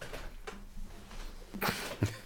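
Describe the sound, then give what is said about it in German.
A few short, dry coughs, the last two sharper and louder, separated by brief pauses against a quiet background. “Trockener so. Husten.”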